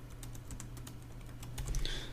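Rapid typing on a computer keyboard as apple.com is entered, a quick irregular stream of sharp clicky keystrokes, fairly quiet, over a low steady hum with no voices.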